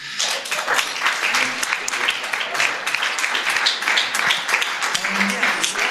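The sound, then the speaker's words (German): A church audience breaks into sustained applause for the band and technicians, a dense, steady crackle of many hands clapping at a fairly loud, even level for several seconds, with a few faint voices mixed in. “Ihr könnt immer einen fetten Applaus geben.”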